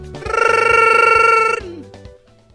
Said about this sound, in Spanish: Ahorita están sonando todos los teléfonos de las amigas feas, ¿no?